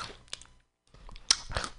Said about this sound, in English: If you're wondering what I'm crunching on, I'm eating Cheetos crunchy, extra flaming hot, twice as hot. They're telling the truth. they are pretty spicy.